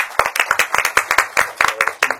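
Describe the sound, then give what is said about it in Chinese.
An audience at a cycling event at the French Cultural Center in Beijing breaks into applause to welcome cycling coach Shen Jinkang: many hands clapping in a dense, steady patter of sharp, bright claps at an even loudness, with no voices over it. “掌声有请。”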